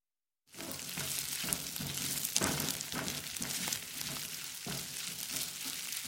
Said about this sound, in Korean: 지금 너 프라이팬에 볶고 있는 거그거 뭐니? 냄새가 나쁘지 않네. 곤드레라나 만드레라나 그런 웃기는 이름인데 이것도 혼자 사는 노인네한테서 얻은 거야.